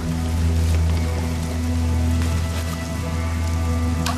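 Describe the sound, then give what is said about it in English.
Steady rain patters densely on a hard surface, with scattered louder drops ticking through a constant wash and a low, even hum underneath. No voices. “Rain.”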